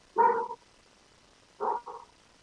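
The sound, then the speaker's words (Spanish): A neighbour's dog barks three times, one longer bark followed after a pause by two quick ones close together, with quiet background between them and no one speaking. “Disculpen a mi vecino el perro. Eh, mi perrito anda, ahí un vecinito por ahí, anda un gato.”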